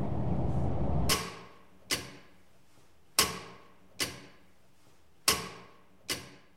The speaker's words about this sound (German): Schwer tickt das Uhrwerk im Auswanderermuseum in Schiefweg.